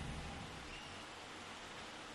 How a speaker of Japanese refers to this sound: 雨すごい降ってきちゃったね